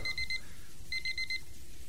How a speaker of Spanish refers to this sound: El despertador comenzó a sonar pegándome un susto de muerte. Alargué mi mano y lo apagué.